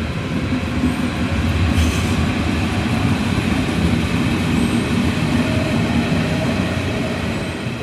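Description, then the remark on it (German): An S-Bahn commuter train at a platform at 6:30 in the morning, already carrying many passengers, rumbles steadily, its deep continuous roar filling the scene, with faint high wheel squeals and a brief hiss cutting through the noise. “Wenn ich hier so in die S-Bahn reingucke, ist um 6.30 Uhr schon ganz schön was los.”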